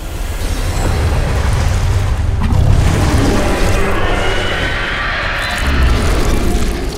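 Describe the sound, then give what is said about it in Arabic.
Heavy, booming footsteps of a monster, a huge lion with a snake's tail and horns, thud over a deep continuous rumble as the ground shakes, loud and swelling as they quickly approach, with no voices present. “فجاه شعر السندباد والمتسابقه بان الارض تهتز تحتهما بخطوات ثقيله اقترب صوت الخطوات بسرعة إلى أن ظهر من وراء هضبة الوحش الذي كان طريدهما”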